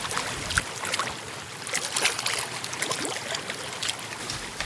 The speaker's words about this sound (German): Kein Wind zum Segeln heute, nur ein paar Stockenten schwimmen auf dem See. Ich genieße die Ruhe und das schöne Wetter. Mehr brauche ich nicht. Jetzt ist deine Zeit. Entspanne dich und genieße das Plätschern des Sees.